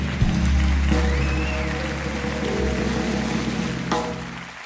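A dense, steady wash of audience applause fills the whole clip, with a low rumbling hum running beneath the clapping.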